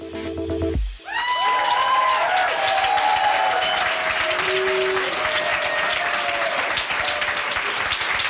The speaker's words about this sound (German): Und äh, Achtung, Ohren zu halten, der Applaus, der jetzt kommt, wird sehr laut und lang. Hier ist André Hermann.